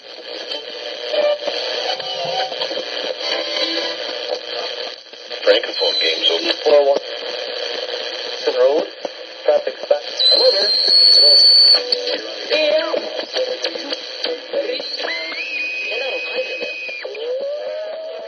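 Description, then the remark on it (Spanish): An old radio dial being turned through stations: bursts of voices and music fade in and out between hissing static, with whistling tones sliding as the tuning shifts, steady. “Conforme ibas moviendo la ruedita, ibas pasando por diferentes estaciones de radio y por unos vacíos de solo ruido.”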